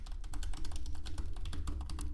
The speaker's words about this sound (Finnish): Mäpäs naputtelen itseni fotonordic.fiihin.